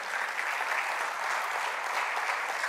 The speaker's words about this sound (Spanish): Aleluya. Dele un aplauso al Señor si usted lo hizo.